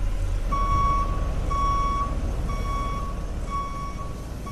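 A tow truck, called to tow a vehicle to a garage, backs up, its reverse alarm sounding four steady, high beeps, each about a second long with short gaps between, over a low, continuous engine rumble.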